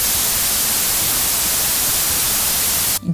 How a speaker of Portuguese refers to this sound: Isso aqui é um áudio, posso colocar o ruído branco, olha que maravilha. Então, ó, o ruído branco é isso aqui.